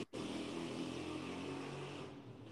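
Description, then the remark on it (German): A loud car or motorcycle engine in Turkey, about a kilometre away, rumbles with a steady, gritty roar that holds for a couple of seconds before easing slightly at the end. No one speaks. “Ja, ne, Bruder, ich, mal kurz nebenbei, ich, ich check nicht, Bruder, wie die Motoren von Autos und Motorrädern hier in der Türkei so laut sein können.”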